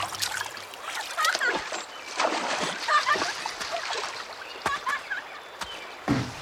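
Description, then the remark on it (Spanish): River water is splashed and churned repeatedly in uneven bursts as someone shakes a branch in it to drive fish into a net, with sloshing and trickling between strokes and faint voices now and then in the background. “Toma la rama y agita el agua. Mientras más fuerte, mejor.”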